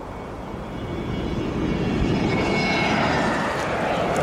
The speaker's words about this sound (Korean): 어, 이놈의 비행기 소리. 아, 엄마, 비행기 소리는 나빠? 비행기의 굉음이 날 때마다 여자들은 서로 약속이라도 한 듯 일제히 아이의 귀에 양손을 갖다 대곤 하였다.